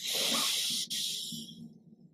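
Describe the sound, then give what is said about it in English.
A deep breath in a breathing exercise (a parachute breath): a loud airy rush of a swift inhale, a brief catch, then a long hissing exhale that gradually fades to quiet. No talking. “Really elongate, exaggerate, and luxuri- luxuriate in that exhale, and do two more.”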